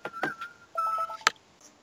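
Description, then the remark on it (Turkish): A phone gives off short electronic beeps as it is being checked: a steady tone, then a quick run of pulsing blips, ending with a sharp tap. Moderately quiet, with no talking. “Bir te telefona bakmam gerekiyor.”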